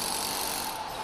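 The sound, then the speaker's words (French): Steady, dense mechanical whirring and clatter of tools at work in the sculpture hall of the Atelier Bouvier workshop, set up on a cathedral forecourt, continuous and fairly loud throughout, with no voices. “Ça y est, nous sommes à l'intérieur de la halle des sculptures, comme vous pouvez l'entendre derrière moi.”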